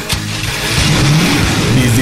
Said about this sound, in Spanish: Arrancamos. Los motores se encienden